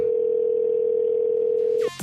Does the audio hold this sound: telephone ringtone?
yes